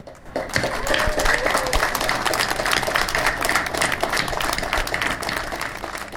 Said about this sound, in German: Und darum bitte ich euch jetzt um einen kräftigen Applaus für den Frieden in Europa.